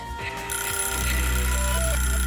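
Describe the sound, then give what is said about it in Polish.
An early-morning outgoing phone call, made around a quarter past eight to wake someone, rings on the line, a steady electronic ringing tone holding for about two seconds over a low hum, fairly loud, with faint background noise. “za moment kwadrans po godzinie ósmej, więc tradycyjnie y, chcemy kogoś zacnego, kogoś specjalnego obudzić i przeprosić jednocześnie, że, że tak wcześnie dzwonimy.”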